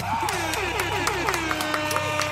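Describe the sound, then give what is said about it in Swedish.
An applause sound effect: a crowd applauds with steady clapping and a few cheers, while a small horn toots over it with wavering, slightly bending notes. “En applåd och en liten tuta på det.”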